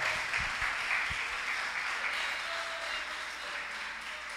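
An audience applauds together at a church service, an applause offered to the King of Glory: a dense, steady wash of many hands clapping that stays loud and even throughout, with a few low thumps near the start and no one speaking.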